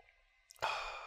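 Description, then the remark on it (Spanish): A quiet pause, then a single airy slurp as someone sips from a cup of coffee, breathy and sustained for about half a second with no talking. “Y para los que nos están escuchando en podcast, dejarle un trago para que también te lo imagines.”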